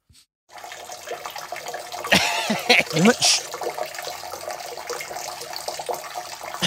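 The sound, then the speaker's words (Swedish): A steady stream of urine from a person urinating standing up splashes continuously into toilet water, moderately loud, with a brief stretch of voices talking over it partway through. “det här är fan bra skval. Alltså. Du träffar ju vattnet.”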